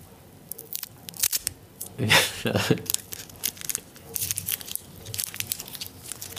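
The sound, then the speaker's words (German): A candy wrapper is slowly unwrapped, giving a long stretch of sharp, irregular crinkling and crackling that swells into louder bursts midway, then continues in smaller rustles, with no one talking. “Ihr merkt also, wenn man langsamer einen Bonbon auspackt, dann wird es nicht leiser, sondern einfach es ist länger laut.”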